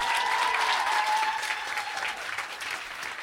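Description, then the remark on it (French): A sustained burst of audience applause after a performer thanks the audience, dense and steady, from a sizeable crowd clapping together for about three seconds, with a faint whistle-like tone early on and a slight easing toward the end. “Je vous demande de garder vos applaudissements”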